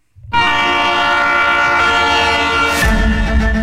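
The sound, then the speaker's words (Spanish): A loud train horn blasts continuously for several seconds as rail cars rumble past, with a heavy low rumble growing stronger near the end. “es ya publicado la creación de estas nuevas líneas o más bien el resurgimiento de eh, los ferrocarriles para pasajeros.”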